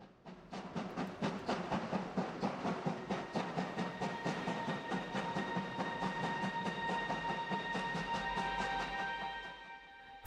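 A train sets off in the dark and rolls steadily along the rails, its wheels beating out a regular, loud clickety-clack at first, then smoothing into a continuous rumble with a faint high whine. No voices.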